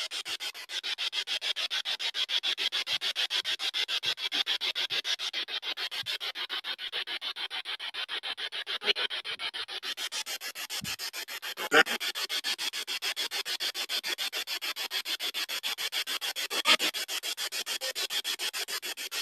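A steady wash of harsh radio static chopped by rapid, even clicks as a spirit box receiver sweeps through stations, loud, with occasional brief bursts breaking through and no talking.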